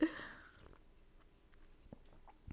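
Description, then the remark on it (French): Someone takes a quiet sip of a drink, with soft wet mouth clicks and a gulp spread over a couple of seconds, and no talking. “je prends me gorgée.”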